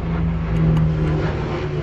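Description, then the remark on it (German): A helicopter passing by, heard as a steady, fairly loud low engine drone with a humming tone running through it, continuous for the whole moment with no voices. “Ich weiß nicht, ob ihr das Radio gehört habt, ich ist gerade einen Hubschrauber vorbeikommen.”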